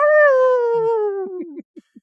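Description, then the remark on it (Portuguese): A person imitates a wolf howl: one loud, sustained wavering note that slowly slides downward, then breaks into a few short, fading yelps. “Essa foi minha transformação. então ele é tá em lobo, forma de lobo aí, lembra aí então.”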